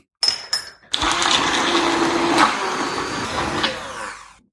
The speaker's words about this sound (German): So, und jetzt kommt wieder das schöne Spiel mit dem Mixer. Das werde ich für euch natürlich wieder ein bisschen kürzen.